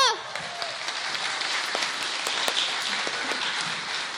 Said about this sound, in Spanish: ¡Denles un aplauso!